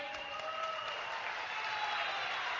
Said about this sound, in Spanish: Y familia, te quiero agradecer por recibirme con ese aplauso, porque para mí hoy es un sueño aquí estar aquí, ¿saben?